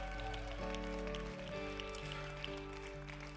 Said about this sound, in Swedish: Ska vi ge Jesus en varm applåd där du sitter eller står just nu? Man kan sitta och applådera också, det går bra. Kom igen!